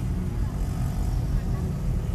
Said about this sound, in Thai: ตอนนี้ลายล้อมลายเอ้ยรอบๆของรถผมเนี่ย จะมีเสียงมอไซค์ตลอดแน่นอนทุกคันไม่ได้ใส่หมวกกันน็อกเนาะ